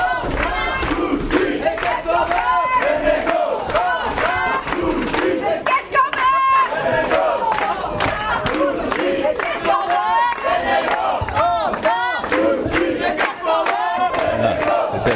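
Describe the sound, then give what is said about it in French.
A crowd of striking workers chants slogans loudly and continuously, many voices shouting together in rhythmic bursts for the whole stretch, with no quiet gaps, letting the police know where they are. “Alors les grévistes, très gentiment, on euh, bah, commence à donner leur slogan pour leur dire où ils sont.”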